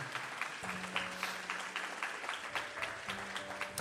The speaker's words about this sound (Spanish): Vamos, denle una, si usted lo cree, denle un aplauso al Señor.